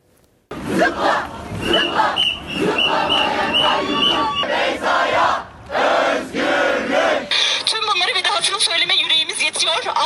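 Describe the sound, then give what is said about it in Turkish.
A large crowd of protesters at the Boğaziçi University protests against rector Melih Bulu, this time for 10 arrested students, chants slogans in loud unison, voices rising and falling in rhythmic waves, with a brief lull midway before the chanting surges back, dense. “Rektör Melih Bulu'ya yükselen sesler bu kez de tutuklanan 10 öğrenci içindi.”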